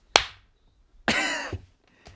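A single sharp hand clap rings out loud near the start, made to sync an audio recording, followed after a pause by a longer, rougher burst of noise and a faint click at the end.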